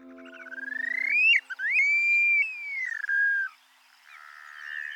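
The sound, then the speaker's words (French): An upland sandpiper (Bartramia longicauda) calls: a loud, drawn-out whistle that climbs, breaks, swoops up again and slowly slides downward, opening with a brief buzzy rattle and ending with a fainter trailing note. “Prochain oiseau, Mobèche des champs, Bartramia longicauda.”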